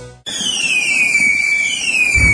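Fireworks going off for the Sant Joan festival eve (revetlla): a loud, sustained high whistle slowly gliding downward in pitch over a steady crackling hiss, starting abruptly after a brief quiet moment, with no voices.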